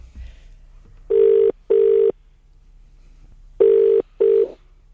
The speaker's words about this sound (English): Will we get another? The phone is ringing. Here we go.